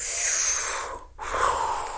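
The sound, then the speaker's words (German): Two long, airy breaths drawn in through the nose, fairly loud, separated by a brief pause, with no talking. “Ähm, also durch die Nase zu atmen, genau, könnt ihr auch alle mal probieren.”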